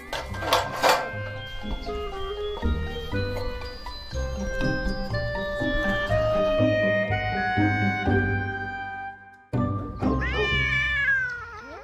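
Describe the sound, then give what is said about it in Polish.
A cat meows in long, drawn-out, wavering cries, loud, then falls briefly silent before one last rising meow. No one speaks. “Strasznie jestem ciekawa tego kota.”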